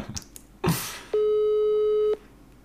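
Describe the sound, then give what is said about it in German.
A single steady telephone ringback tone, a flat mid-pitched beep lasting about one second, preceded by a short rustling burst, with no voices present. “Wir gucken mal, geht er ran? Du darfst aber fragen. Ich klingel und du fragst.”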